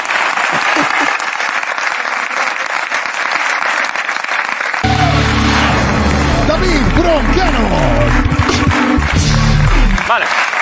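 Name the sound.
audience applause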